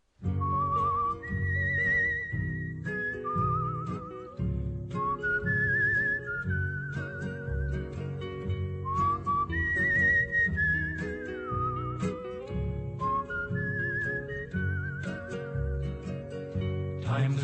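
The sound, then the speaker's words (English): A whistled song intro played as a music break: a melody with a slight warble rises and falls in short phrases over a full, steady instrumental backing, loud throughout with no talking. “Okay, we'll take a break, listen to some music, and come back with our spotlight on Breaking Bad, Ozymandias.”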